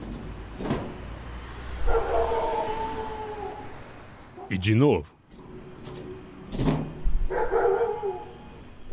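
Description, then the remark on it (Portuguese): Dogs bark and yelp behind a gate, with a rising howl-like cry in the middle, while a person speaks briefly and a couple of sharp knocks on the gate's metal plate land near the start and end. “Os cachorros começam a latir imediatamente.”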